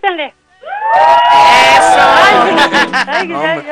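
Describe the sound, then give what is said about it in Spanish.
A family gathered around a radio receiver shouts and cheers together, loud, with overlapping voices rising into a sustained roar of whoops and yells for a few seconds after a brief voice at the start. “Pero que griten con más injundia.”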